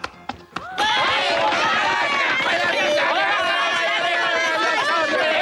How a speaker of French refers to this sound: les enfants, faites un peu moins de bruit, s'il vous plaît.